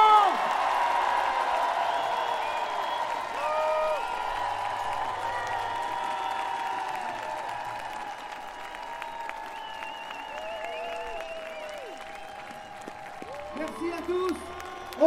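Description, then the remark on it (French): A large outdoor street crowd at a rally in Nantes claps steadily and cheers, with scattered whoops and shouts rising over the sustained applause, fairly loud throughout and tapering slightly toward the end. “Vous pouvez vous applaudir très fort.”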